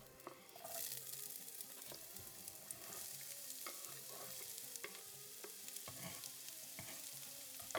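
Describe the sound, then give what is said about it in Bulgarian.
Onions, sliced into half-moons, sizzle steadily in hot olive oil in a pan, a continuous crackling hiss broken by scattered clicks and scrapes as they are stirred. No one speaks. “Нарязвам го на полумесеци и го слагам в нагорещен с зехтин тиган.”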